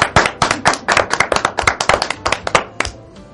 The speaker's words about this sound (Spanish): Así que le demos un aplauso.